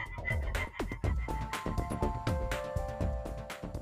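A dense chorus of frogs and toads croaking, with overlapping bursts and rasping calls in quick, irregular succession, fairly loud, and no one speaking.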